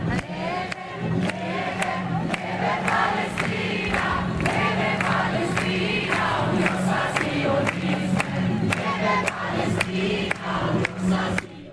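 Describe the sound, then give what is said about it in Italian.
Thousands of pro-Palestine demonstrators filling a square chant in unison "viva la Palestina" and "Palestina libera", a dense roar of voices rising and falling in rhythmic shouts, with sharp percussive bursts punctuating the steady, loud chanting throughout. “qui, e qui in giro per il mondo sono migliaia e migliaia che riempiono la piazza ululando viva la Palestina, Palestina libera”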